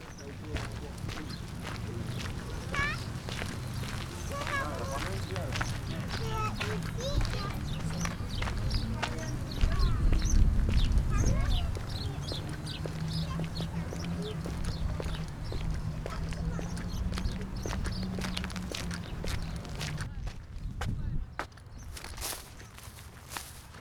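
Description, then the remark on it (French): Outdoor beach ambience on the Prado beaches in Marseille in May 2020: a steady, full wash of sound with footsteps crunching along, faint indistinct voices, and a low rumble underneath throughout. “Tout de suite, on enchaîne avec un deuxième paysage sonore sur les plages du Prado à Marseille.”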